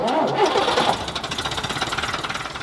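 A bus engine cranks and catches, its rough starter churn giving way to a steady, rhythmic diesel chug that pulses evenly at a moderate loudness, with no talking.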